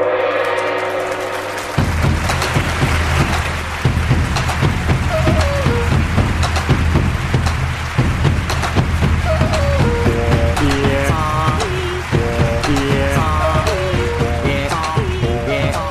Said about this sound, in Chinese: 掌声可以停了。